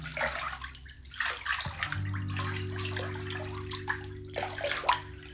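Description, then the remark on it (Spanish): Water pours steadily into a bathtub being filled for a bath, a continuous rushing splash with a low resonant hum underneath, fairly loud, with no talking. “Sí, sí, sí, sí, sí, el ruido del agua. Porque estoy, porque estoy en medio de un baño de inmersión”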